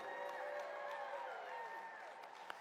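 An audience stands and applauds and cheers to greet the speaker Dr. David Martin, a steady, continuous wash of clapping and raised voices. It is fairly soft and holds evenly for a few seconds.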